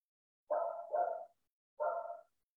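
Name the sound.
dog barking outside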